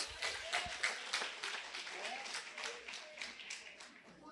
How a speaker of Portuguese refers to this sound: Aplauda Jesus, meus irmãos.